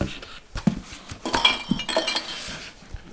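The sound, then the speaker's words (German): Empty glass bottles, being taken to the glass waste, clink and knock together several times in quick, irregular succession, moderately loud, with a bright rattling of glass against glass. “So, die leeren Glasbuddeln zum Glas.”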